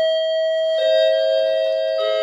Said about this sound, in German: Da läuten die Kirchenglocken. Wenn du das nicht gesagt hättest, hätte man das rausschneiden können.